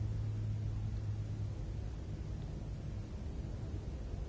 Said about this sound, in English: the sound of a plane, the sound of my voice.